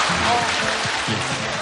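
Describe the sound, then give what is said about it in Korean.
A steady wash of audience applause, dense and fairly loud, with voices murmuring underneath throughout the short stretch. “훨씬 더 많은 박수 소리와 함께.”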